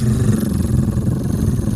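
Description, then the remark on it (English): A voice imitates the purring engine of a really nice high-performance car being turned on, a steady low rumbling growl held for about two seconds, fairly loud, with no words spoken. “It, whenever someone turns on a really nice car and it's like,”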